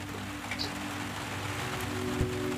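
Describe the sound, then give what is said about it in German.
Steady rain patters against a window, a dense spread of small drops tapping continuously at moderate volume with a low hum underneath. No voices. “da liegt er in seinem Bett und er hört, wie die Regentropfen an sein Fenster platschen.”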